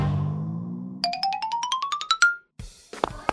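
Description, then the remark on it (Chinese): A telephone rings with a rapid string of bright electronic beeps climbing steadily in pitch for about a second, after a low hum, then it cuts off into a short burst of noisy clatter. “那我还是给闹闹的妈妈打一个电话，这样比较放心。”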